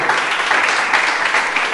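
A crowd claps steadily and loudly together, a dense wash of many hands applauding at once with no pauses, filling the whole moment, giving applause to the Lord during a sermon.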